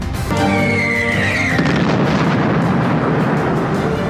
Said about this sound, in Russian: Считается, что именно испытание двигателя от буревестника с радиоизотопным источником питания привели к взрыву на полигоне в Архангельской области в августе 2019 года. Ракета взорвалась раньше, чем планировали.